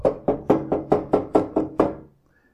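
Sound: knocking on a door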